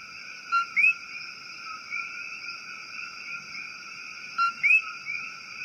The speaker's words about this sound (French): Elle est célèbre à Porto Rico en raison de l'appel de séduction que les messieurs grenouilles entonnent durant la nuit, du crépuscule jusqu'à minuit. Un appel auquel la grenouille doit son nom, coqui. Écoutons son chant nocturne de troubadour.